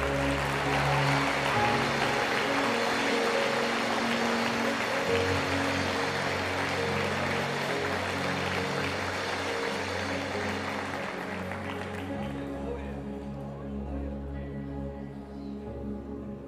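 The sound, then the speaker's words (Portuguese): An audience claps loudly and steadily for about twelve seconds, giving applause to Jesus, over sustained keyboard chords, then the applause thins and fades while the music carries on. “Dê um forte aplauso a Jesus nesse lugar.”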